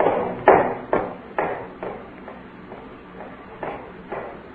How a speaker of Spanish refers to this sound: Ya dieron las diez, querida.